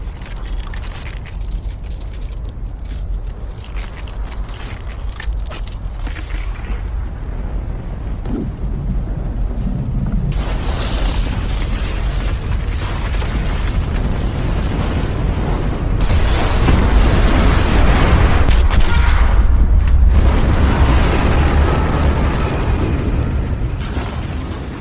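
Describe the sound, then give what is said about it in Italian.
A deep, distant boom gives way to a long, thundering roar of an avalanche rushing down a mountain, a broad rumbling rush that builds steadily louder and stays heavy and continuous to the end, with no voices. “I ragazzi vengono svegliati da un potente boato in lontananza. E poi un rumore simile a centinaia e centinaia di cavalli al galoppo sembra discendere la montagna a tutta velocità verso di loro.”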